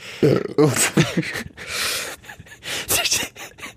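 A breathy sneeze sequence: gasping inhales followed by two sharp, noisy bursts of air, loud and abrupt, with a few short vocal sounds around them.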